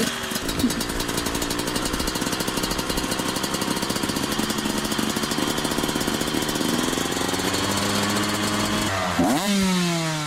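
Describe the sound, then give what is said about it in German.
A motocross bike engine drones loudly and steadily with a rough, buzzing rattle, then revs sharply upward near the end in a rising, whining burst. “Vorurteile und Nachhaltigkeit im Bezug auf Motocross”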